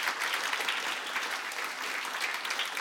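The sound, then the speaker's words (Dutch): Sustained audience applause, a dense, steady clatter of many hands clapping at an even, moderately loud level throughout, with no voices standing out. “Geef ze een heel warm applaus.”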